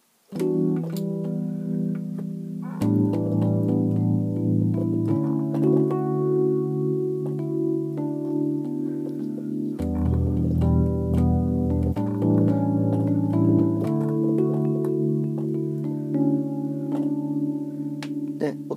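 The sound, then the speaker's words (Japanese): Sustained electric piano chords ring out with a gentle wavering shimmer from a modulation effect that changes the tone's resonance and depth, the tone swaying slightly as chords change every few seconds, steady with no one speaking. “ちょっと揺れてますよねこうふわふわふわって感じでで実際ライブでこれ音を使うとかなりですね広がりがある効果とか出せたりするんでですね”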